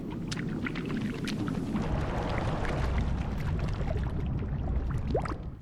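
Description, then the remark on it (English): Water gurgles and trickles steadily as it escapes through the holes of an old-fashioned orange juicer pushed up and down, with small splashes and bubbly squeaks, a continuous watery churning ending in a rising bubbling chirp; used as the sound of little baby Dory's movements. “That was little baby Dory's up and down movements because it allowed for the water to just escape in a certain way through the holes, and it sounded really cute.”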